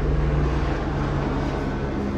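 A steady, loud mechanical drone of a helicopter passing overhead, with a deep low hum and a wide wash of engine and rotor noise holding constant throughout, no voices.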